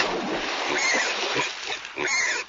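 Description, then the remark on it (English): A pig grunts and oinks amid steady, noisy splashing, as if it has just plunged into water; the sloshing stays loud for a couple of seconds. “Can the pig get in?”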